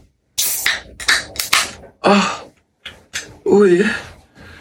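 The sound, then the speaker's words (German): A bottle of Paulaner Spezi soda is opened with a quick series of sharp clicks and brief hissing bursts, followed by two short vocal exclamations. “Paulaner Spezi. Let's zuhören, wie es klickt.”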